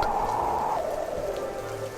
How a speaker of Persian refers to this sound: چکه های باران به پشت شیشه پنجره می خورد کش می آمد و با صدای یک نواختی با آهنگ ساز می آمیخت